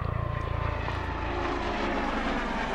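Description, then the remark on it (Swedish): A police helicopter drones overhead during a search for a missing person in Vetlanda, Sweden, in October 2022, its rotor chopping in a rapid low thump at first and then blending into a steady, fairly loud engine roar. No one speaks. “Det är en polishelikopter i alla fall”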